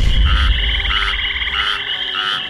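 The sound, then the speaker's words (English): A dense chorus of frogs and toads croaking together, with rapid overlapping trills and pulsing calls that continue steadily and loudly throughout, with no voices. “But just as he reached him, a flurry of toads and frogs jumped out from behind the Naka and attacked him.”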